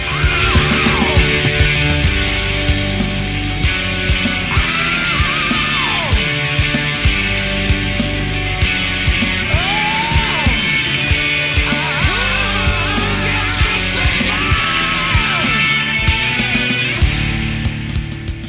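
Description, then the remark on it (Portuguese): A loud, dense grunge rock song plays throughout, with heavy distorted guitars and pounding drums under a strained, screaming vocal that rises and bends in long held notes. “E a real é que essa música extravasa qualquer sentimento de depressão. Você escuta, canta junto, grita e de repente se sente melhor.”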